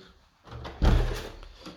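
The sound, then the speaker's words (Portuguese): A door is opened to let in the dog Duque: a soft click, then a broad rumbling, scraping swing lasting about a second, with no voices. “Eu vou abrir para eles, galera, porque não dá para não abrir.”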